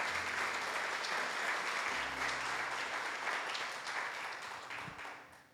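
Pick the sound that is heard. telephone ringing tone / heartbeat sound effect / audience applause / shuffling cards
audience applause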